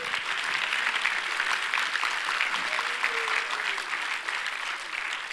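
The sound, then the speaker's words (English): A large group claps hands steadily, a dense, continuous wash of applause at even loudness throughout, with a faint voice or cheer rising briefly underneath. “Let's clap our hands here a second.”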